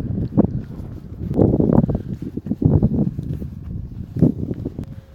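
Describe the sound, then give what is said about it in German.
Gusty wind roars across the open mountaintop of the Wasserkuppe, a continuous low rumble that swells and fades in uneven surges, buffeting the microphone with no voices. “Gott, gib mir Sonne in meinem Leben und gib mir ganz viel Wind in meinem Leben so wie jetzt auch der Hörer, die Hörerin, der Wind hörte bei der Aufnahme, die oben auf der Wasserkuppe entstanden ist.”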